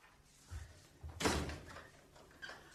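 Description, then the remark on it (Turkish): A door is opened: a couple of soft low thumps, then a sharp rattling scrape of the latch and hinge, fading into quiet background noise with no voices. “Ee, dur biraz şu kapıyı açayım da öyle anlat.”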